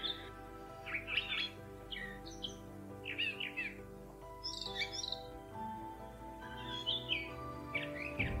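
A male and a female bird sing a duet, trading quick chirpy phrases back and forth in alternating bursts at high pitch in an irregular rhythm, over a steady low background hum with no talking.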